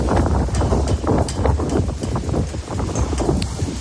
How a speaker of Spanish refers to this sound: Y para complicar un poquito más la situación y especialmente la circulación, ha llegado la, la borrasca Carlota con muchísimo viento.